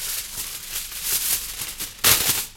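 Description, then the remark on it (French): Aluminium foil placed over the end of a trumpet bell as a makeshift mute, crinkling and rustling: a dense, crackly hiss of irregular crunches that swells into a louder burst near the end, with no voices. “Donc on entend déjà la, texture du papier aluminium. Le bruit du sandwich.”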